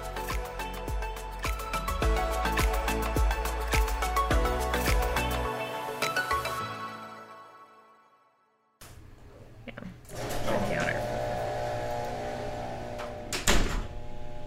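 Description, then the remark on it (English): A garage door rumbles and whirs steadily in the background, a low mechanical hum with faint rattling and a sharper clunk near the end, following a short stretch of music that fades out. “That's at the garage door.”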